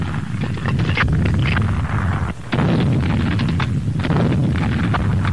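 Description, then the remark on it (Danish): Dense, continuous gunfire from Estonian SS volunteers' and German troops' machine guns and anti-aircraft artillery on the Narva front in 1944: rapid machine-gun bursts layered over heavy anti-aircraft cannon thuds, loud, with a brief lull near the middle before the barrage resumes. “Ja, vi hører her estiske SS-frivillige og tyske troppers maskingeværer og flakrasseleri i aktion ved Narva-fronten i 1944, som det blev fremstillet i den tyske ugerevy.”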